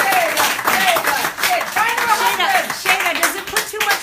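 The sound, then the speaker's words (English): A crowd claps steadily and loudly for about four seconds, a dense wash of many hands with voices calling out and cheering underneath. “Um, if no more further questions, let's just hear it for our UWL.”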